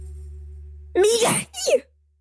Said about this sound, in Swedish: Jag kommer nysa. Kommer du nysa?